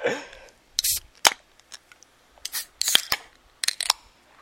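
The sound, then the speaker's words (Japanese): Several drink cans or bottles being cracked open one after another at a remote online year-end drinking party before a toast, each a sharp click followed by a short fizzy hiss, fairly crisp, with small clinks between. “じゃあ音が取れるようにした方がいいのかな、はい、音をねちょっとそれぞれ皆さんが持っている魔法の水を開けますよはい”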